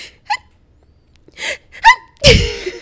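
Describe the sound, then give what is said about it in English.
A voice imitates the cute sneeze of a girl from high school: a couple of tiny squeaky gasps building up, followed by one sharp, breathy, high-pitched "achoo" burst at the end. “this girl that I knew in high school, and she would literally sneeze like.”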